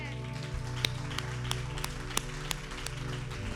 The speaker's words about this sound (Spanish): Bueno, vamos a, a darle un fuerte aplauso a Dios.